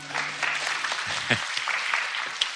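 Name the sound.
audience applause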